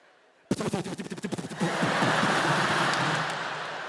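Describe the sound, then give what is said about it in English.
A voice imitates a woman's rapid run of farts one night: a sputtering string of quick, buzzy bursts that swells into one long, loud, noisy blast at the end, alone. “The other night, I don't know what she'd eaten, but it was like a fireworks display. It's sort of built to a finale.”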